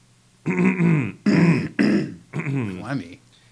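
A person clears their throat several times in close succession, four loud, rough, voiced bursts with short gaps, with no talking in between.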